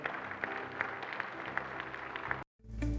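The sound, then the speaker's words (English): An audience at a service of The Assembly in Cabot applauds, giving the Lord a hand clap for his word, a dense wash of many hands clapping together for a couple of seconds before it cuts off abruptly into silence. “Would you give the Lord a hand clap for his word today?”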